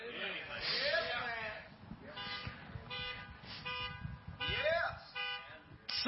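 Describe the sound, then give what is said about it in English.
A car alarm blares from the fourth vehicle in the middle aisle of a parking area, cycling through swooping wails and steady repeated tones, fairly loud, with a low murmur of voices and background noise underneath. “Somebody's car's going off right there.”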